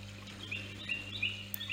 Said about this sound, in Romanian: Auzi sunet de păsări.